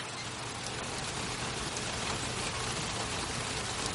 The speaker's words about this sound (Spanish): Llueve con fuerza sobre los salones la noria.